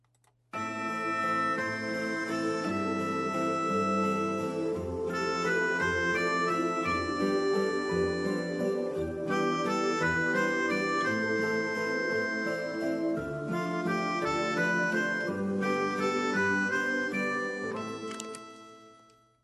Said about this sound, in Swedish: jättemysig tyckte jag den där var. Alltså, det låter ju verkligen som en julkalenders jingel, vignett.